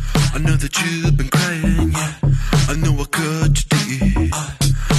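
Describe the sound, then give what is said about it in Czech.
A loud, polished pop song, a newly released single with a slight change of genre, plays: a sung vocal line rides over a steady beat, deep bass and layered synths, with the full mix continuing throughout and no talking over it. “Protože vypustil nový single, hmm.”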